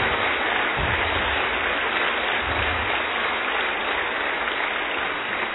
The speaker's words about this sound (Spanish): Y el que lo crea, ahora sí, dele otro aplauso porque voy a empezar a predicar. Hoy sí empiezo a predicar.